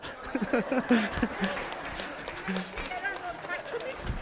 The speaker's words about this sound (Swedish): Men nu då, om jag stampar på den så och trycker till den rejält?